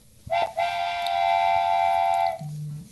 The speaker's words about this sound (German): Hier kommt die Spoilerpfeife für alle, die nicht von Resident Evil 8 gespoilert werden möchten.